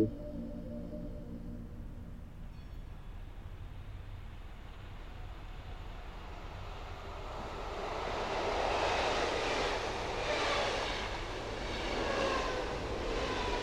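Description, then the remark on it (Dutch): A train travelling to Kortrijk, Belgium, moves along with a steady low rumble and hum, the noise swelling louder and more rushing in the second half with gentle rhythmic surges; no one speaks. “Een paar weken later ben ik met de trein op weg naar Kortrijk.”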